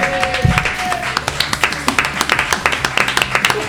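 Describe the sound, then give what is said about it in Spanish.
A crowd applauds guests, the Radioactivas, at the host's request. Many overlapping sharp claps form a dense, fairly loud patter that runs throughout, with a brief whistle or tone near the start. “De nuevo, ah, por favor, chicos y chicas, un fuerte aplauso para la radiactiva.”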